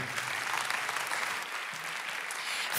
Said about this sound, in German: Und ich finde, das ist ein Moment, wo wir dem Heiligen Geist einen Applaus geben können für alles, was er tut in meinem Leben.